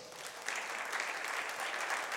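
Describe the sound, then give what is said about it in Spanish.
A crowd breaks into steady applause for Jesus, many hands clapping in a dense, continuous wash that swells slightly after the start and holds at an even level throughout. “¿Cuántos pueden darle un aplauso a Jesús por eso?”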